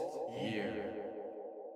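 A short cartoonish boing-like sound effect from an 'until here' button, used when the hosts get stuck, with a wobbling, downward-sliding tone, lasting under two seconds, played alone and fairly loud with no talking.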